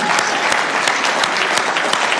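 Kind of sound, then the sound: crowd, audience clapping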